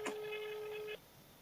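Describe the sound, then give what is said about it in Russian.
A telephone line tone as someone places a call: a short click, then a single steady electronic beep holding for about a second before cutting off abruptly. Clear, with no one talking over it. “Правильно звоню.”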